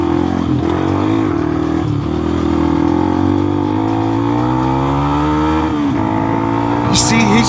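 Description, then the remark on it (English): A loud car engine revs hard and steadily for several seconds during a road chase, its pitch climbing and shifting as it accelerates, with a voice faintly underneath and a brief sharp noise near the end. “All right, there's the car. Passes him up, and then he goes off road.”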